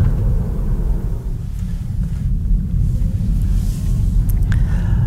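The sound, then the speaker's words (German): Inside a Tesla Model 3 driving on the Autobahn, a loud, steady low rumble of road and engine noise fills the cabin, with a few faint, brief creaks cutting through near the end. “Das Einzige, was hier nicht leise ist, irgendwas knarrt hier die ganze Zeit wie ein alter Lehnsessel.”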